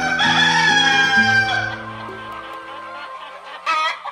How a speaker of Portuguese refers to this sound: Num galo exuberante se tornou, batia as asas fortes e cantava.